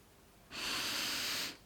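A single deep breath drawn in sharply through the nose, lasting about a second, fairly loud, with a soft hiss and no talking.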